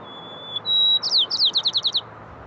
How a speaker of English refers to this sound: And the sparrows, they do what they can, singing in higher pitches so that other birds can hear them above the noise.